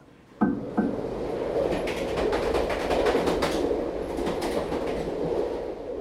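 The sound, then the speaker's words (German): A train rolls steadily along the rails toward Nuremberg with a continuous rumbling roar, repeated rhythmic clacks and rattles starting after a couple of sharp knocks. “fuhr mit diesem Schriftsteller im Zug nach Nürnberg.”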